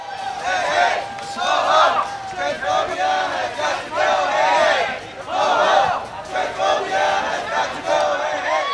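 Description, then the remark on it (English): A large crowd of protesters marching on Santa Monica Boulevard in West Hollywood shouts and chants together in loud, rhythmic surges, many voices overlapping continuously throughout, while cars honk their horns in support. “Cars honked their horns in support as the crowds shouted”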